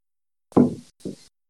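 Uschi the cat, who cannot get out, knocks twice against a closed door: a louder, fuller thump followed by a softer one, with silence around them and no voices.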